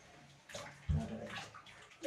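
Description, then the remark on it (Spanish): Water pours steadily into a bathtub, a continuous rushing splash with a brief louder surge partway through, with no talking over it. “Vamos a hacer la reciclación de agua, vamos a meter en la máquina misma, ¿no?”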